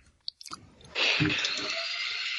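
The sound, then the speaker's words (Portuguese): Wet chewing of ice cream cake: a couple of small mouth clicks, then a steady squishy smacking and munching, with no talking. “Quem tá comendo aí? Eu. Comendo bolo de sorvete da minha mãe.”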